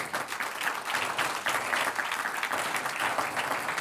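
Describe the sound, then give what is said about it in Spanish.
An audience breaks into sustained applause to the Lord, many hands clapping at once in a dense, steady wash that holds at an even, fairly loud level for several seconds with no speech over it. “Un aplauso al Señor si usted lo cree.”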